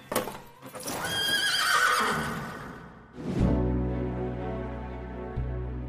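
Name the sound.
horse neighing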